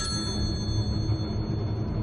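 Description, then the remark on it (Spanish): A telephone rings with a steady, high-pitched tone that holds without a break for about two seconds, sitting over a constant low rumble. No one speaks. “Va hacia el teléfono y descuelga.”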